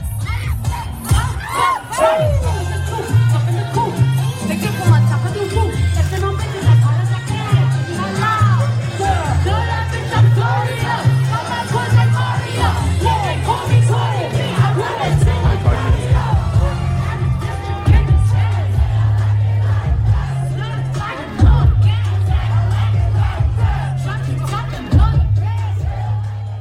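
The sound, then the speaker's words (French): A rap song performed live, with a heavy pulsing bass beat and vocals buried under a loud crowd that shouts and cheers along the whole time. “j'ai enregistré un extrait audio pour qu'on puisse l'écouter”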